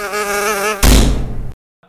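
A mosquito's thin, wavering buzz whines loudly for under a second, then a harsh burst of noise cuts in for about half a second before dropping to silence. No one speaks.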